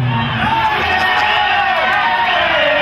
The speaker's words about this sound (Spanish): Como dijeron, dale, güey, griten, una, dos, tres, vámonos.